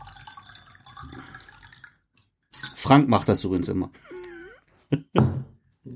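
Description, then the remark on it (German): Lemon water pours steadily for a couple of seconds, followed by a few gulping and swallowing sounds as someone drinks on a warm day, with brief talk in between. “Ich hab nur Durst. Es ist warm. Prost. Lecker Zitronenwasser.”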